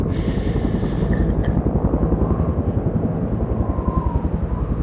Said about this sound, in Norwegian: Rasstedet ligger langt fra veiforbindelse, og det er vanskelig å få fraktet inn letemannskap og utstyr. Da kommer det mange helikopter på en gang.